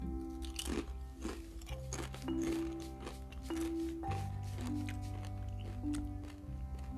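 Loud crunching and chewing of crispy chili Doritos tortilla chips, with repeated sharp bites and wet mastication over a steady low hum, no talking.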